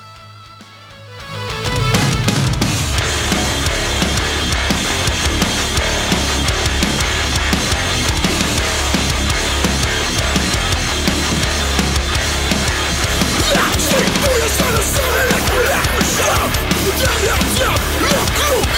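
A loud, dense hardcore punk song kicks in after a brief quiet moment, with distorted guitars, pounding drums and raw shouted vocals blasting at full intensity throughout.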